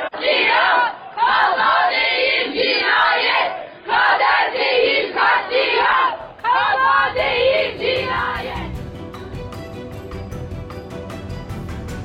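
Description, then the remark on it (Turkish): A crowd of families loudly chants protest slogans in four rhythmic bursts separated by brief pauses while heading to a courthouse in Turkey, some wearing T-shirts printed with photos of lost relatives and yellow hard hats bearing their names; then the chanting gives way to a quieter, steady musical tone. “Aileler bu sloganlarla mahkeme kapısına varamadan polis barikatlarıyla karşılaştı.”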